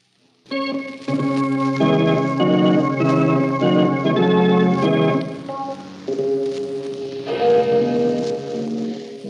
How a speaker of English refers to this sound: The man who now seeks his own dark destiny as the clocks strike 12 for murder at midnight.